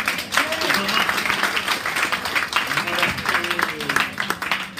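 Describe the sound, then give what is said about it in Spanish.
An audience breaks into loud, sustained applause for Jesus, a dense crackle of many hands clapping steadily for several seconds while voices call out and murmur underneath. “El aparato se perdió y cuando llegó aquí ya pues, empezó a Fuerte el aplauso de Jesús.”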